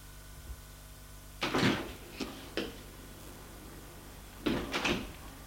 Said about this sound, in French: Il va au fond de l'allée. pour ouvrir la porte qui mène à la cour.